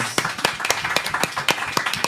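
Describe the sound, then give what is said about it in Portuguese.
Applause of steady, evenly spaced hand claps, about eight or nine sharp, crisp slaps in a regular rhythm over roughly two seconds, at moderate loudness with no voices. “Uma salva de palmas também.”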